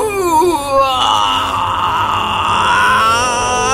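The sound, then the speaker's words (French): A voice imitates a dragon's howl after a little knight plants his sword above its right nostril: one loud, drawn-out wailing cry that bends in pitch, strained and throaty, rising into a sustained harsh wail before tapering off. “poussa un hurlement.”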